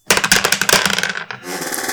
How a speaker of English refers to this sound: Exactly. Let's let's roll dice.